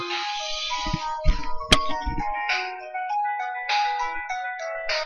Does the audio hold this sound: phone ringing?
yes